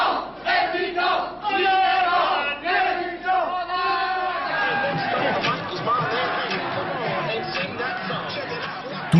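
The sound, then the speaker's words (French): A huge outdoor crowd of about 200,000 people at Place de la Bastille in Paris, France, celebrating at a popular festival, chants in loud, rhythmic unison, then breaks into a dense, roaring mass of cheering voices that fills the space. “Ils seront 200 000 au pied du génie de la liberté. Et cette fois, ce n'est plus pour revendiquer, mais pour se réjouir.”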